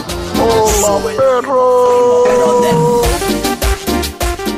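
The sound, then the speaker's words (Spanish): A dog howls in long, wavering tones that slide up and down in pitch for a few seconds, then breaks into shorter, rougher bursts of noise. “Pero estamos saludando al perro.”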